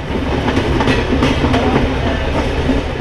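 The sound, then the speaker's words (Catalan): A train rolls steadily along the rails, heard from on board on a Sunday run from the capital of Muscat up toward the valley of the Guia. It makes a loud, continuous rumble with periodic clacks as the wheels pass over track joints. “que fa la guia eh, d'aquest tren que potser sentiu eh,”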